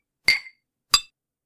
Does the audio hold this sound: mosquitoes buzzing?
no